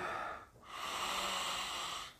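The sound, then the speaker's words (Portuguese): A brief breath, then one long, deep, conscious inhale drawn through the nose, airy and lasting well over a second, taken after a drop of oil is spread on the hand to open the airways. No one speaks. “Você pinga uma gotinha na mão, espalha um pouquinho aqui e faz aquela respiração profunda, consciente,”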